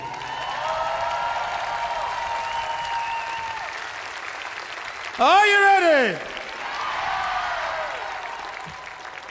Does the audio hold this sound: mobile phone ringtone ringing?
no